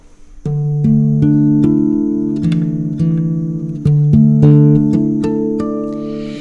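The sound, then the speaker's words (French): An acoustic guitar in DADEAD open tuning (D, A, D, E, A, D), lower than standard tuning, plays ringing chords, with a steady series of plucked or strummed attacks over sustained low drones, clear with no talking. “et, ça donne une, euh, une profondeur à la guitare que je ne trouve pas avec euh, l'accord traditionnel.”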